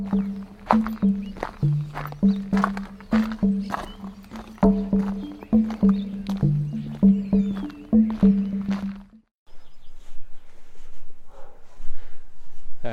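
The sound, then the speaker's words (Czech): Dogs bark over and over in a rapid, uneven series for several seconds in the village of Nezdice, then stop, leaving a quieter stretch of outdoor ambience with faint background sounds. “jak slyšíte, jsme v další vesnici, štěkají tady psy.”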